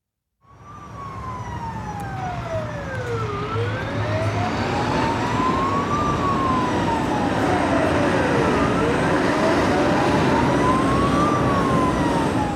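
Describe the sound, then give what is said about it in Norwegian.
A fire engine, followed by a four-wheeler, skids onto a gravel road, its siren wailing in slow rising and falling sweeps over a steady engine rumble, starting abruptly and staying loud throughout. “Brannbilen og firehjulingen skrenser inn på en grusvei som fører til Tusseskogen.”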